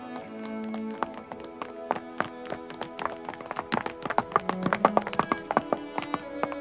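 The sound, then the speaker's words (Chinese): Heavy, rapid footsteps of a group of people hurrying in from a distance, a dense irregular patter of thuds that grows louder and busier, over a steady low musical drone. “沉重而急速的脚步声由远及近，一行人匆匆从远处跑来。”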